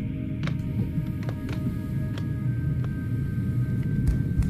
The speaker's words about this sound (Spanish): Sí, sí, voy encendiendo el coche.